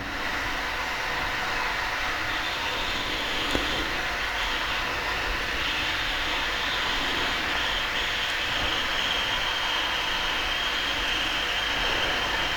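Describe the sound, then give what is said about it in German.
An electric kettle heats water with a steady, rushing hiss and a low rumble that holds constant from start to finish, moderately loud, with no voices. “Und der Wasserkocher heizt das Wasser auf.”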